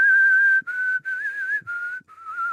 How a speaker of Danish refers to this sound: Du har et meget, øhm, meget flot fløjt.